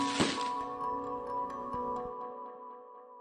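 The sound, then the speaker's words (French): A sharp crack of a firework bursts outdoors at the Bourgine site, an abandoned swimming pool in Angoulême, ending a Gilets jaunes demonstration, followed by a ringing, fading tail and a few fainter pops over the next two seconds before dying away. “Une mise en scène macabre qui se termine par des feux d'artifice sur le site de Bourgine, une piscine abandonnée.”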